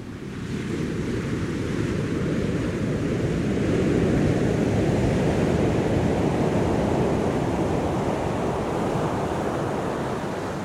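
Ocean waves surge in a steady, broad roar of surf, swelling louder toward the middle and holding a continuous rushing wash with a touch of wind, no voices present.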